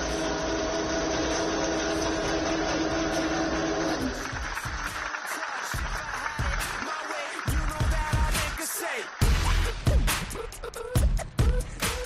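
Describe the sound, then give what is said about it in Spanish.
A steady mechanical hum with tonal lines gives way after a few seconds to a group clapping, a dense and uneven burst of applause from the staff of the Campos Racing team that continues loudly to the end. “Ese era el sentido aplauso de toda la gente que trabaja en el equipo Campos Racing, a su, al que era estacionada su jefe.”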